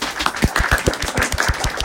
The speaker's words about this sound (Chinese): 我们掌声欢迎。